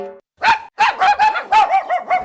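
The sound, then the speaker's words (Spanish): A dog barks in a quick series of about six sharp, loud barks with brief gaps between them, no voices present. “Espera, que te lo traduzco. Tu perro te dice que quiere Lenda”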